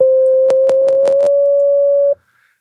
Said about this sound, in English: If I go back to my sine wave and I modulate it again by the very low pitched saw